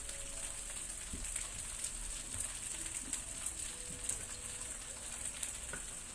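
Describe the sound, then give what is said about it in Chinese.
Several chicken cutlets sizzle together in a frying pan without added oil, their own fat dripping out as they near doneness, a continuous bright crackle and hiss with scattered sharper pops, with no talking over it. “这个啊，如果在家里面有好多人一起吃的话呢，其实呢，你就把它一起煎这样子就可以了。”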